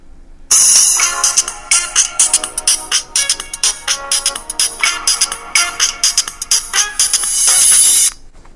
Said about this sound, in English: Ringtone set.